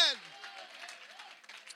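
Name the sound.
audience clapping hands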